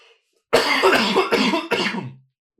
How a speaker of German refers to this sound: Ich muss schon wieder husten, Sekunde.